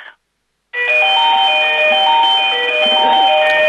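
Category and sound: signal or alarm, mobile phone ringing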